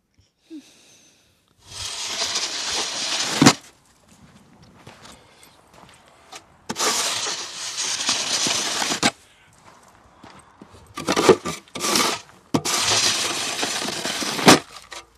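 Snow being shovelled: long, loud, hissing scrapes come in several strokes with short pauses between, joined by a few quicker scrapes near the end. No one speaks.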